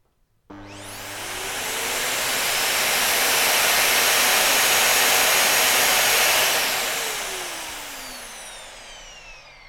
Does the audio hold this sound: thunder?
no